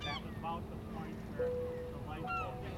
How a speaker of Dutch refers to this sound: En ik heb hier zo lang over gefantaseerd en nu ben ik gewoon hier op een boot.